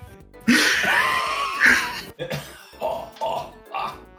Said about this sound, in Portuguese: Já tá é. na hora de tu ver essa tosse aí,